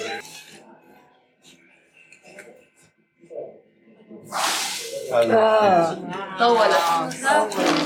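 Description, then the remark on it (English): Water is poured down a very deep well in Palestine, where Christ met the Samaritan woman, to hear how deep it is: after quiet, faint shuffling, a sudden rushing splash bursts out, followed at once by several excited voices talking over each other. “poured down some water into the well, and it took seconds before we could hear it dropping down on the bottom”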